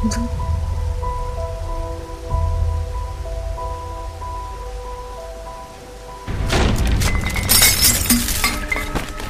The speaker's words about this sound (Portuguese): Vocês escutam o barulho do, do telhado provavelmente cedendo e agora é, o andar de cima está tá mais perigoso do que estava antes.